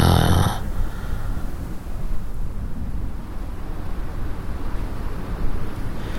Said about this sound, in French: Le vent qui hurle les éléments qui, sont déchaînés, la mousse qui vole, c'est dantesque, hein, c'est. C'est quelque chose qui peut rendre fou, oui.